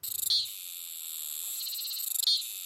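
A cicada sings loudly, a continuous high-pitched buzzing drone that swells twice into rapid pulsing bursts, with no voices present. The sound is produced by two small plates, called tymbals, at the start of the abdomen.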